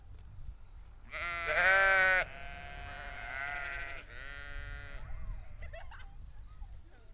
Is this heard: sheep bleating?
yes